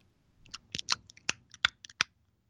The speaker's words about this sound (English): Trying not to chew into the microphone. Oh, I do it all the time, and I'm sure everyone loves it. They love to hear us chew. It's really um, sexy.